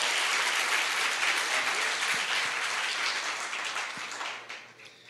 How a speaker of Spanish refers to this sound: De hecho, gloria a Dios, van a aplaudir de gozo, entonces denle un aplauso bien fuerte al Señor.